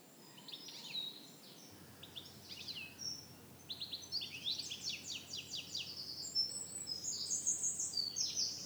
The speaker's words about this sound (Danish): Her i baggrunden hører du fuglesang, og øh, jeg havde egentlig planer om at gå ud i skoven og optage podcasten i dag, men øh, det fungerede ikke rigtigt, fordi det blæser lidt for meget.